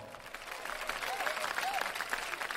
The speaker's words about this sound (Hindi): तालियां तालियां भाई हमारे लिए भी तालियां